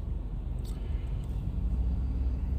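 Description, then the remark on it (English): A steady, low rumble of a line of cars, among them an Acura and a Honda, rolling by on a road with a truck following, continuous and fairly even in loudness with no voices. “They got a nice, clean car, too.”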